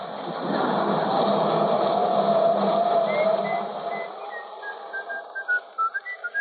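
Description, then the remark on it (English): A person whistles a wavering, sliding tune, starting with a long sustained note over a steady background hum, then breaking into short, quick repeated notes toward the end. “Cut out that whistling. I can't stand it anymore.”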